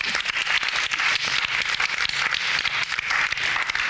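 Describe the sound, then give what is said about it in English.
A crowd applauds steadily, dense overlapping hand claps forming a loud, continuous wash of noise with no voices breaking through. “Give Emily a big round of applause.”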